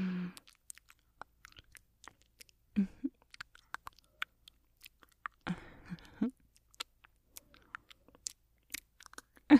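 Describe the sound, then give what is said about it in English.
Quiet mouth sounds: wet chewing and crunching with scattered clicks and smacks in an irregular rhythm, with no talking. “Lots of people have strong reactions to mouth sounds like this either disgust or relaxation, or even a little excitement.”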